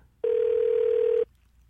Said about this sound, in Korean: 3512님 한번 전화 걸어보고요